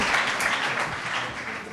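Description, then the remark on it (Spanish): Steady applause from a group, a dense crackle of many hands clapping at an even level for the whole short stretch, with no voices standing out. “Pues eh, eso, sí que tiene un aplauso, ¿no?”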